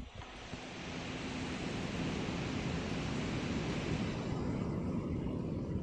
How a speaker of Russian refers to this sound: Вот сейчас комп греется, он не трещит, ничего не делает. И, ну, Судя по звуку, он дует, он дует. Он шумит, он дует.